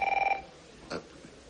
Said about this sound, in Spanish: De repente, suena el teléfono.